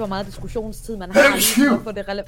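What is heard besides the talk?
sneeze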